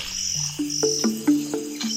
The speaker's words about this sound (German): Und, weißt du's schon? Welches Tier suchen wir? Ich sag es dir. Es ist die Fledermaus.